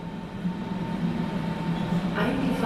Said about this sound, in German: abfahrender Zug auf Gleis 4, S75, nach Martenberg, über Lichtenberg, Springpfuhl. Berlin, Friedrichshain. Am Ostkreuz steige ich aus der S-Bahn, es nieselt.